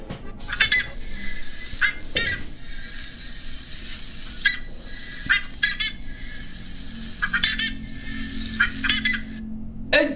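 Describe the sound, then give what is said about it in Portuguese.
Loud, harsh metallic calls of a buff-necked ibis, known as Carucaca or Curicaca, ring out repeatedly, clustered in bursts with brief pauses, clear over a low background rumble. “A resposta correta é a Carucaca, gurizada. Esse é o som da Carucaca.”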